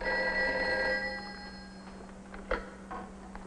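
A telephone bell rings once, a bright, metallic, bell-like ring that fades over about a second, followed by quiet hum and a soft clunk like a receiver being picked up.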